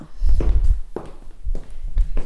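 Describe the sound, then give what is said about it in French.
Footsteps in shoes at Planimonteur, a post-production company: about five steady steps, each a dull low thud with a crisp heel click on top, fairly loud, with no talking. “J'ai mis les chaussures, t'entends bien les pas là.”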